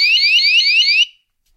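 A loud electronic device alarm sounds alone when the device's mode button is pressed, a quick series of about five rising, high-pitched sweeping beeps over roughly a second before cutting off into silence.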